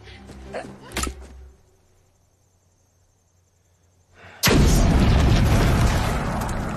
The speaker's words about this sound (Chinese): 小帅原地爆炸，染发妹也被炸回了最初的起点